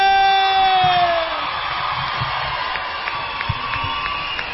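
A crowd cheers and applauds loudly for a woman announced as returning, with high whoops and sustained shouts riding over a dense wash of clapping that stays steady for several seconds.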